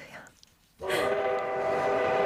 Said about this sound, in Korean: 아, 아 기차. 아 이거 타셔야죠.